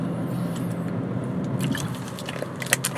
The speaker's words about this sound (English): Okay, so I got I got to drink a little bit. So talk amongst yourselves.